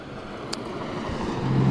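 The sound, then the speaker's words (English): Steady roar of cars and trucks passing on a highway by a BP station mini mart at Lake Wylie on the North Carolina–South Carolina state line, with a low engine rumble, one vehicle swelling louder as it approaches near the end. No one speaks. “And uh, there's a lot of cars and trucks going by.”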